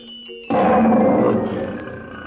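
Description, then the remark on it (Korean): A tiger lets out a loud, rumbling roar that bursts in suddenly after a quieter opening and sustains with a gritty, growling texture, fading slightly toward the end. “어, 호랑, 호랑이야. 도망치자. 빨리 도망쳐야 해.”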